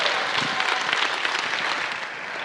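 An audience claps steadily, a dense wash of many hands applauding at once, consistently loud throughout with no voices rising above it.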